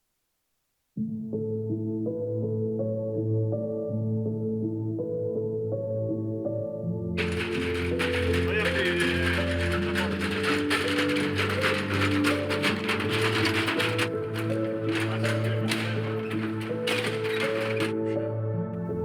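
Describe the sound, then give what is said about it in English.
A wheeled stretcher, rolled by two morticians on their way to a hospital corridor, rolls steadily over a paved path outside the Sant'Agostino Estense Hospital building in Modena, Italy, with a continuous low rumble, turning into a harsher, louder metallic rattle partway through as it keeps moving without pause. “This is the sound of a wheeled stretcher.”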